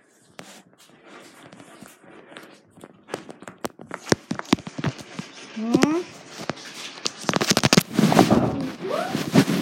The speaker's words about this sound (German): Ich habe hier gerade mal ein bisschen Poppet gemacht. Pop, pop.